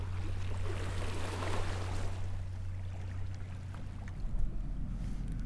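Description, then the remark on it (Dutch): Steady low engine drone of a passing boat over broad water wash and rushing noise at a riverbank of the Waal river, continuous, with no voices. “En dan na 10 minuten lopen ben je er. Bij de Waal.”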